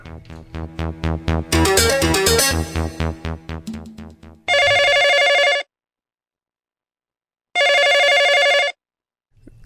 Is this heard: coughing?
no